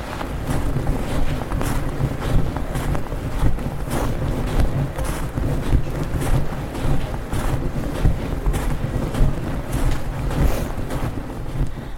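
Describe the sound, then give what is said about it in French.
Steady crunching footsteps on snow as people begin a climb through a forest, a regular walking rhythm of soft scuffs over a constant rumble of wind noise. No one speaks. “le temps de trouver le chemin, d'éteindre les lampes et l'ascension commence dans le bruissement régulier de nos pas sur la neige.”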